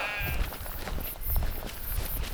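Ewes bleat repeatedly in a noisy flock, their wavering calls overlapping amid shuffling and rustling, with no one speaking.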